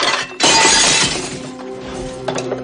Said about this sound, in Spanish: Arriba, Vera ha tirado la bandeja de comida al suelo.